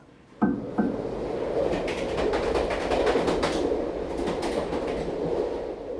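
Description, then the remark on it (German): A train to Nuremberg rolls steadily along the rails with a continuous low rumble and rhythmic clickety-clack of wheels over track joints, opening with a couple of sharp clunks, fairly loud. “Jakob fuhr mit diesem Schriftsteller im Zug nach Nürnberg.”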